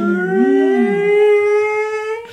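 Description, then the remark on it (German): A siren, started by pressing its siren button with the control turned to maximum, winds up, its steady, buzzy harmonic tone creeping slowly upward in pitch and holding loud, with a brief wavering undertone near the start and no voices. “Okay, und jetzt fängt die Sirene an zu. Das heißt, erst so ganz le leise.”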